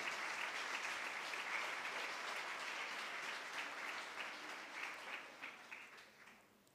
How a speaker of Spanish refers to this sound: Apláudalo si lo va a aplaudir, apláudalo.